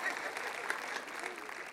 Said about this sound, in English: some people are clapping. They're like, praise the Lord. Come on, honey, get that. Amen. That's an amen moment.